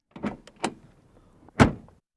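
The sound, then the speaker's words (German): A sports car's door is handled with a couple of lighter clunks, then slammed shut with one solid thud that briefly rings out, used to make music. No one speaks. “Und es gibt eine Autotür”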